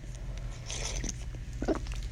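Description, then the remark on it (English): Quiet mouth noises of someone sipping pho soup: soft wet slurps and smacks scattered over a steady low hum, with no talking. “Sorry, I keep sipping my pho soup.”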